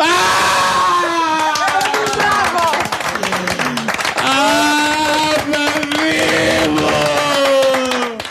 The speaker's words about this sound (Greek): Και θα συνεχίσω και με ένα ουρλιαχτό που δεν θέλετε να το βγάλω εγώ.